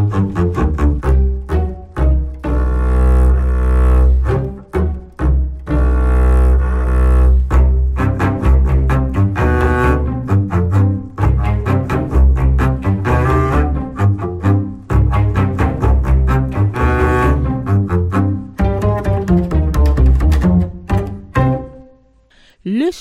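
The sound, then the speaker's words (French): A French children's song about art and the painter Magritte plays loud, with a steady bouncy rhythm and full harmonic accompaniment running continuously before ending abruptly near the close. “extrait de leur disque …, sorti chez Victory Music en 2017.”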